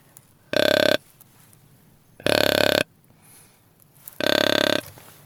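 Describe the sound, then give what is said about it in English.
Three loud, deep grunts blown on a deer grunt call with its button let go altogether, the setting for a bigger deer, each short and raspy, spaced evenly about two seconds apart, with quiet pauses between and no talking. “If I let it go altogether, it's a bigger deer.”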